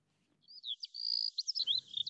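Birds chirping in a quick, continuous stream of high, bright tweets and trills, clear, with a soft low rumble joining underneath toward the end.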